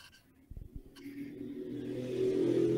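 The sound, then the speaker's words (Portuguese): A motorcycle engine revs up outside, its pitch climbing and the roar growing louder over a few seconds after a couple of brief low thumps. “Ó a moto aí.”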